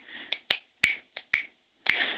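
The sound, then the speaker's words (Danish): A person snaps out a rhythm: six crisp finger snaps in a short, uneven rhythm, some landing in quick pairs, with brief silences between them and no voices. “Og jeg blev ved med at prøve at knipse det for ham, men han fatter det bare ikke.”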